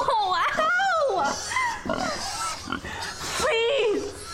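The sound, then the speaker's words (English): Several hungry pigs oink and squeal in a loud, continuous jumble of overlapping grunts and high rising squeals that fills the whole stretch. “You know my pigs is hungry.”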